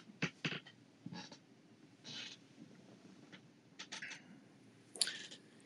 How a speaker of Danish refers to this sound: Ja, jeg sidder lige og tænder lidt sterinlys.